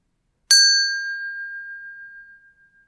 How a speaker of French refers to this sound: et terminer cette pratique au son de la cloche.